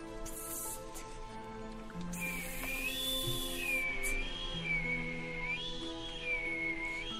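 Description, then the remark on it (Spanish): A thin, high whistle, coming from inside a pile of shoes at a shoemaker's, drifts in after a couple of seconds and wavers gently up and down in pitch, sustained and fairly soft over a steady background hiss, with no one talking. “Un silbidito casi imperceptible se coló desde el interior de la pila de zapatos, pendientes hasta los oídos cansados del zapatero.”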